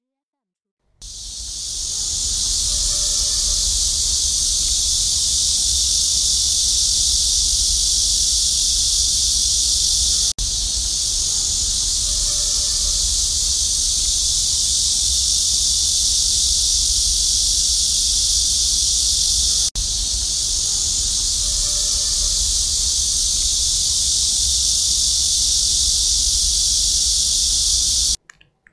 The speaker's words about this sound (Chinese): 现在我们就用…录的一段片段声音的片段…来跟夏天告个别吧。